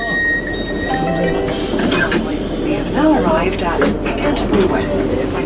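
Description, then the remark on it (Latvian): A high-speed train's steady rumble as it travels from London to Canterbury, England, with a thin high whine at first and people talking over the continuous noise. “Mūsdienās ceļš ar ātrgaitas vilcienu no Londonas aizņem tikai stundu.”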